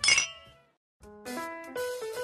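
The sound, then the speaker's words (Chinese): Glasses clink together once in a bright, sharp toast, leaving a ringing tone that fades. After a brief silence, a sustained melodic chime sequence begins and steps through several pitches. “聊精酿，聊好酒，跟生活干杯。”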